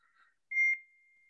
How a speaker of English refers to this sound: Whoa, that was a loud beep. Sorry. I don't know who that was. If uh, it was me, could have been.